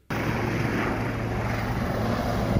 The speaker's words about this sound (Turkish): İçinde askerlerin olduğu helikopter gemiye indi.